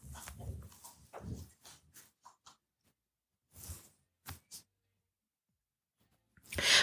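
A dog barks in a series of irregular bursts, a cluster of loud barks at first, then scattered shorter ones and a final sharp bark, with no voices.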